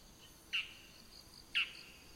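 A bull-headed shrike gives two short, sharp calls about a second apart, each a bright strident note standing out against a quiet, faintly hissing outdoor background.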